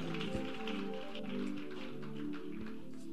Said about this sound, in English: clap your hands and take your seats.